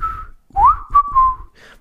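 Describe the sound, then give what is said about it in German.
A man's breathy, half-formed whistle, only hinted rather than properly whistled, traces a short melody: a rising glide, then a few held notes, airy and soft, with no talking over it. “Ich habe, äh, ich habe, ich merke, dass ich immer mehr pfeife, wie mein Opa früher gepfiffen hat. So halb, ähm, nicht richtiges.”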